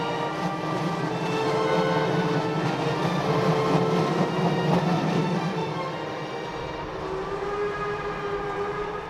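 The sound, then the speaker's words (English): A train travelling from Hamburg to Bucharest rolls steadily along the tracks, a constant heavy rumble with a thin tonal whine riding over it, fairly loud throughout, with no voices. “I caught a train in Hamburg and slept most of the way to Bucharest.”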